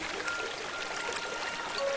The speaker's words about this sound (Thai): แม่น้ำผู้สงบใสที่สุด สายน้ำนั้นก็ได้กลับมาไหลตามปกติ